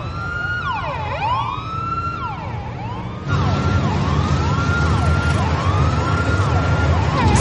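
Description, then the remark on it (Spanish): The sirens of five fire trucks driving through the facility grounds wail together, their rising and falling tones overlapping in a steady cycle over a low engine rumble; the sound grows noticeably louder about halfway through. “Cinco camiones de bomberos avanzan por las instalaciones.”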